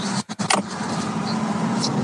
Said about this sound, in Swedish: Där har klart han sitter i en bil också. das, dasar iväg med bilen också.